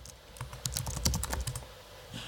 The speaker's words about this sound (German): Du tippest wieder was auf der Tastatur?